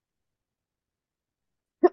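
cough

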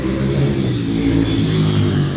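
motorcycle engine revving past

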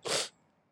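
sneeze from hay fever

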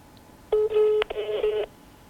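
phone ringing

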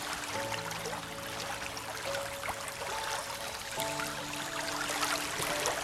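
rushing waterfall

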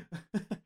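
a sneeze

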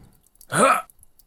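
deep breath in

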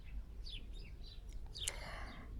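small birds singing outdoors

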